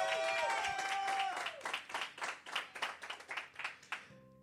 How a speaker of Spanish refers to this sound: Si tú lo crees, dale un aplauso fuerte. Dale un grito de victoria.